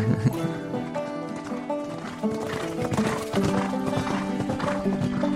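Hooves clop in a quick, uneven rhythm while a horse whinnies with drawn-out, wavering calls, steady in loudness throughout.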